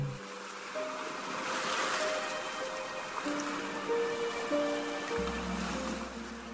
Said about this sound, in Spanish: Observa y escucha el mar con atención.